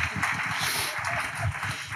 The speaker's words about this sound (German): Hey, Applaus für Applaus.